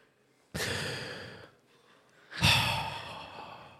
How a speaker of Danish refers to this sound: Ja, men jeg ved godt, jeg har, jeg ånder ind i mikrofonen, og det er fordi, at jeg er glad.